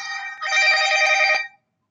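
A phone ringtone chimes loudly, a bright electronic tone with a few quick pulses, lasting about a second before cutting off abruptly. No one speaks.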